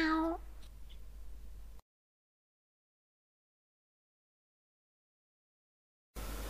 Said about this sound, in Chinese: 嗯，我要带它去睡觉了，就不伺候你喽。走喽，小猫咪。喵。